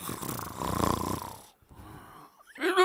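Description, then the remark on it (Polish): A person imitates snoring to represent Jesus asleep at the front of a boat during a storm: one long, loud, rasping snore, then a brief pause and a softer breathy inhale, before a voice cuts in at the very end. “A Jezus śpi. Z przodu łodzi słychać:”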